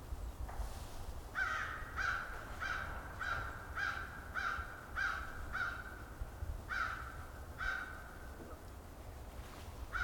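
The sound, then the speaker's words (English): An American crow caws about ten times in a steady, evenly spaced series of harsh, raspy calls over a constant low rumble, with no voices present. “American Crow behind me.”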